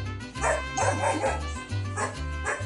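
A dog barks repeatedly in short, fairly loud bursts, several yaps spaced unevenly across a few seconds, over a steady low musical backing.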